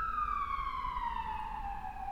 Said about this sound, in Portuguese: aí pausa para a passagem da ambulância. Olha, essa aqui tá com pressa, hein?